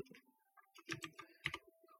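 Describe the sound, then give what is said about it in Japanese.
Quick bursts of typing on a computer keyboard while searching online for September 10, clustered keystrokes clacking in an uneven rhythm with a few louder presses, fairly quiet, with no one speaking. “9月10日で検索しましょうか。”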